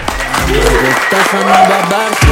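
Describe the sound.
Steady applause from a small group, a dense run of clapping at an even loudness that carries through the whole moment, with voices calling out over it.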